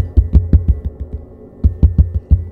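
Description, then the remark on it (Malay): Two quick bursts of knocking, about five or six dull thuds each with a short pause between, imitating someone knocking on a house door at night. No voices. “Banyaknya pintu kau ketuk”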